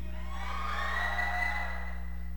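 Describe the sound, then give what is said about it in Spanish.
An audience gives a shout of joy to the Lord, shouting and cheering in a sustained, blended roar of many voices with a few high whoops, over a steady low hum, lasting the whole moment without a break. “¿Cuántos pueden darle un grito de júbilo al Señor?”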